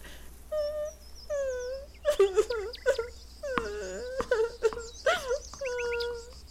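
A dog whimpers and cries, letting out a series of high, drawn-out whines broken by short, sharp yelps, with no one speaking over it.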